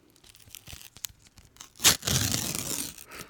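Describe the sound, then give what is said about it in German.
A package of Manner Neapolitaner wafer snacks (Manner-Schnitten) being opened: scattered faint crinkles, then a sharp tearing rip followed by a second or so of loud, rustling crinkling of the wrapper. “Nee, das sind äh, Manna-Schnitten, Neapolitaner.”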